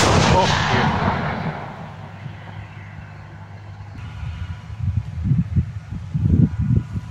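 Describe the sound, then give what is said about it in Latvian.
A howitzer, of the kind sent from Latvia to Ukraine, fires in Ukraine with one loud, booming blast that rolls away in a long echoing rumble, followed by heavy low rumbling and thuds. A voice briefly speaks. “Jā, jūs sarunā dzirdējāt, ka viņš piemin šīs haubicas, kas no Latvijas ir devušās uz Ukrajinu, un te arī varam paklausīties, kā tas reāli skan Ukrajinā.”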